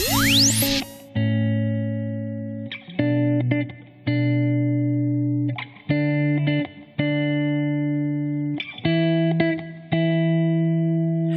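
A pop song intro opens with a quick rising sweep, then bright, loud synth chords pulse in repeated sustained blocks with short breaks between them. No vocals come in yet.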